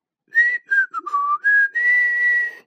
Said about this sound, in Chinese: 说完，大灰狼轻轻地吹着口哨，悠闲地走开了。